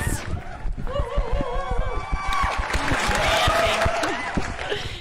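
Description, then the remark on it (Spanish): A crowd claps steadily with dense, overlapping hand claps while voices cheer and whoop over it, the noise holding fairly loud for the whole stretch. The applause welcomes a new guest on a radio program. “Así que con un fuerte aplauso, bienvenida al norte del muro”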